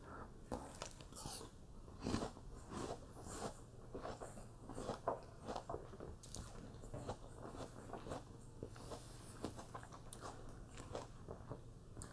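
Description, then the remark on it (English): Crisp crunching and chewing of apples, with repeated wet bites and mastication sounds in a steady irregular rhythm, fairly loud, with no talking. “I'm munching on apples today.”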